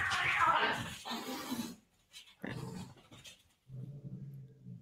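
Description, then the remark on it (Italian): Two dogs, Aki and Zagara, play-fight with bursts of snarling growls and scuffling, a short pause, then more growling and a low, rumbling growl at the end. “Eh, se sentite strani rumori sono Aki e Zagara che fanno la lotta, cioè veramente giocano, però insomma eh, fanno molto rumore.”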